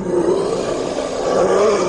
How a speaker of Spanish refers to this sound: Sorregina la observaba con satisfacción al tiempo que la criatura emitió un alarido espeluznante que hizo temblar los cimientos del convento.